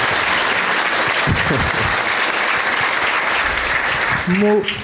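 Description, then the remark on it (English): A crowd applauds and cheers as a first-time guest is introduced, with dense, continuous clapping, loud and sustained throughout; a few voices rise above it near the end. “Let's hear it for Sam Morril, everybody.”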